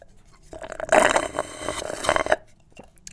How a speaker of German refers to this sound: Also lasst uns Eistee schlürfen.